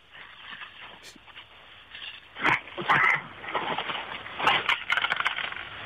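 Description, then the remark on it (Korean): Coins clink and jingle in several rattling bursts as a caller counts about 70,000-odd worth of coins over a muffled telephone line, the clattering rising and falling irregularly, moderately loud, with no one talking. “아, 아, 동전 소리 내주려고 전화 주신 거예요?”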